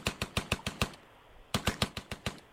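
Two rapid bursts of gunfire, each about six sharp, loud cracks in quick succession, separated by a brief pause, with no voices present.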